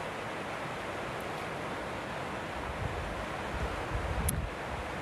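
A steady, full roar of rushing river water beside two big boulders and rocks in the middle of the river fills the whole recording, close and continuous with a slight surge near the end, and no voices.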